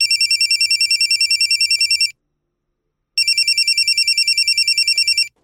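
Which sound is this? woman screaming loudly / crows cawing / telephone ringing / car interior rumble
telephone ringing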